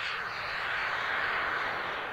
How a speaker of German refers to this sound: Inzwischen steht das Flugzeug auf der Startbahn. Die Maschine setzt sich in Bewegung. Dem Piloten fällt es zunächst schwer, die Spur zu halten. Dann hebt das Flugzeug schließlich ab.